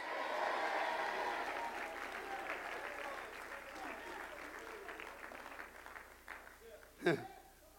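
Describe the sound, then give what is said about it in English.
An audience at a church worship service claps and shouts together, a dense wash of applause and cheering voices that swells early, then gradually thins, with one sharp loud whoop near the end. “Somebody clap your hands and shout, Yes!”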